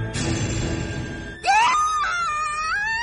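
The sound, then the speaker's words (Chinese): After a stretch of rumbling noise, a woman's high-pitched scream of terror bursts out and holds for over a second, wavering and wailing as it trails off: the character Rena screaming after hearing eerie laughter from the alien 'Sleeping Beauty'. “大古听到丽娜的惨叫，率先抵达现场进行安抚。”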